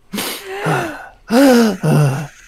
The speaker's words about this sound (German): streckt seine Arme aus, macht die Augen zu und atmet ganz laut.